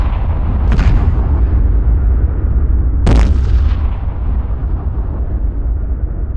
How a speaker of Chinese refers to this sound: 萨拉姆身后的灾难级战列舰就齐齐开火了，一道道光柱在遭受重创的血袭者战舰之间扫掠，白色激光所到之处，所有的一切都化为了烟云。